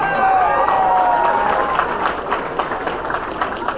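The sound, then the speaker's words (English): A crowd at the Reds Caravan cheers and claps for Rosie Red, the Reds' newest mascot, with high whoops and whistles riding over a steady roar at first, then the noise thins into scattered, sharp hand claps over about four seconds. “Actually, by the way, let's give a round of applause to the Reds' newest mascot, Talk about energy.”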